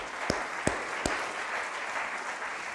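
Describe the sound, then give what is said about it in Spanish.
A crowd applauds for God steadily, a dense wash of clapping with three sharper, louder claps standing out near the start. No one speaks. “Dale un aplauso a Dios. Otro aplauso, por favor.”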